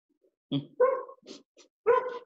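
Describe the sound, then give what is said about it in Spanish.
Dogs across the way bark in a quick, uneven burst of four or five sharp, throaty woofs, with no one speaking. “Ahí podemos ver eh, los perros de la derecha.”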